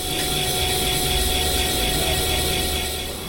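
A steady mechanical whir of a spinning polishing wheel grinding a diamond, with a continuous hiss and faint tonal hum, no talking, holding even loudness throughout.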